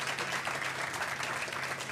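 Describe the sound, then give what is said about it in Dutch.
Steady audience applause at a show for two guests, a dense, continuous patter of many hands clapping at a fairly even loudness throughout, with no voices standing out. “En mag ik een heel groot applaus voor Jannie en Sam.”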